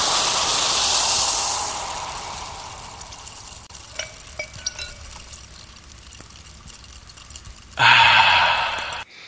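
Someone chews a sticky caramel toffee from Lasse T's Hemköp in Rissne: scattered wet smacks and small clicks over a steady hiss, then a sudden louder, crackly burst near the end. No one speaks.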